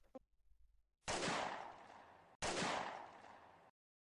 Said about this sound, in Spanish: ahí oído los disparos?